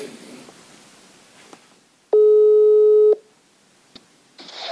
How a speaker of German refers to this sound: Und wie das Ganze gelaufen ist, das wollen wir doch mal versuchen, live zu hören, indem ich sie jetzt mal anrufe.